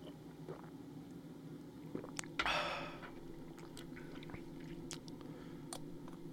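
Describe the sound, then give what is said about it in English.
A short slurping sip of a strong liquor of about thirty-five percent, followed by faint wet mouth clicks and a quiet swallow, with no talking over it. “I don't know how you swallowed it, but like that burn hit my the back of my throat so goddamn quick.”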